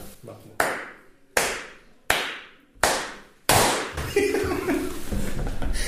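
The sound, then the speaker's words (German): Four sharp, evenly spaced hand claps made to synchronise the sound, then a fifth louder clap as several people clap together, followed by a few overlapping voices and murmuring. “Nein, du musst den, du musst ihn viermal klatschen lassen, auf den fünften klatschen wir alle, damit der Ton synchron ja. ist.”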